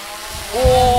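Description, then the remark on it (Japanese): A returning drone about to be caught by hand: its motor whine starts about halfway through, sweeping up in pitch and then holding a steady, buzzing tone over a low rumble, growing louder toward the end. “じゃあ戻ってきたついでに旧館長さんあの帰ってきたドローンキャッチしてください”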